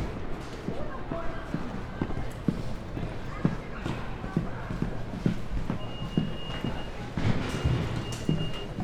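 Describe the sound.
Busy subway station ambience in America with a steady low rumble and echoing hum, punctuated by regular footsteps clacking on a hard floor, and faint voices in the background.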